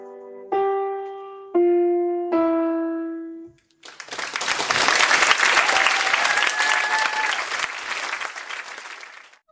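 audience applause

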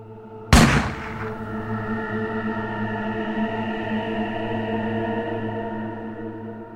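pistol gunshot

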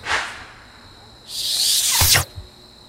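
whistling sound

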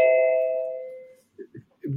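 doorbell ringing

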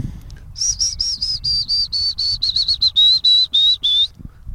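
willow warbler song

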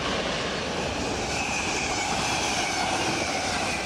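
train passing by

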